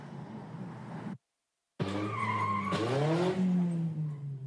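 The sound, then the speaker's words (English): Loud tire screeching in two bursts: a short squeal that cuts to silence, then a longer, shrill, wavering screech whose pitch bends as a red pickup truck skids hard, moments before it hops a curb and slams into a bus station shelter. “That sound you hear is what all of us who were there heard moments before this red pickup truck drove straight into”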